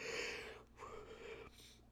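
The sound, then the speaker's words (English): A person lets out a long, breathy yawn, a drawn-out airy exhale that wavers and trails off with a soft second breath, with no talking. “Sorry for the yawning.”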